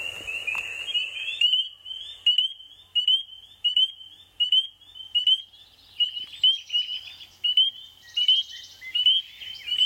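A chorus of spring peeper frogs gives high, shrill rising peeps in a steady, rapid rhythm, repeating roughly every half second. The calls are loud, with fainter peepers overlapping.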